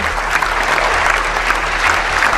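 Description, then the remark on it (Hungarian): Loud, sustained applause from a large audience following Yulia Navalnaya's speech in Strasbourg, dense and steady clapping filling the whole stretch without pause, a low hum running underneath. “Julia Navalnaya Strasburgi beszédét egyébként olyan nagy taps követte, amely teljes egészében kitenné a breaking egy komoly részét, úgyhogy ízelítőül csak ennyit.”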